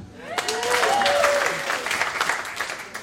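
An audience claps steadily for about three seconds, a dense patter of many hands, with a few voices briefly calling out and whooping over the applause early on.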